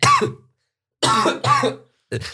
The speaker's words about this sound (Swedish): det är för grovt för den här podden, så jag börjar hosta.